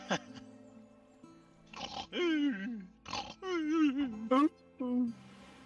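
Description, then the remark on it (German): A voice imitates loud snoring, several drawn-out rasping, grunting snores in a row, prominent, with short pauses between them. “schnarcht wie noch mal was.”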